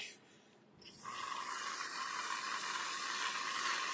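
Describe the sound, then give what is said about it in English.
A steady aerosol hiss begins after a brief quiet moment and sprays continuously as whipped cream is squirted from a can, with no voices. “Yeah, it sounds like it sounds like something with bubbles. It sounds like oh, whipped cream.”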